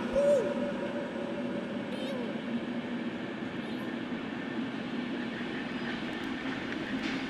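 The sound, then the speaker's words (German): A train rolls into a station with a steady, loud rumble of wheels and carriages, a brief high squeal near the start, and faint murmuring voices mixed into the background. “Die drei kommen gerade die Treppe am Bahnsteig hoch, als der Zug einfährt.”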